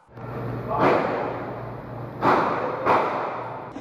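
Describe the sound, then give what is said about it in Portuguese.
Three sharp gunshots and bomb blasts crack out at irregular intervals in the early-morning hours in a community in the west zone of Rio de Janeiro, the last two close together, each echoing briefly over a steady low hum of background noise. “O silêncio da madrugada foi interrompido por tiros e bombas.”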